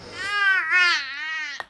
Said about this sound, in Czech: to tady bude řvát nějaký mimino